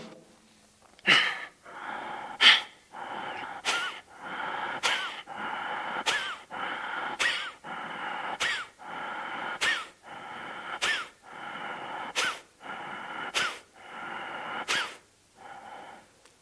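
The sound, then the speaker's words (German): Kapalabhati yoga breathing: a steady series of about thirteen sharp, forceful exhalations through the nose, evenly spaced roughly a second apart, clear, with softer airy breathing between bursts and no talking. “Und bei Kapalabhati hört sich das dann so an.”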